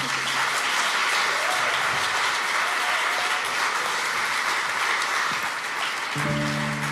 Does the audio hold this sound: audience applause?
yes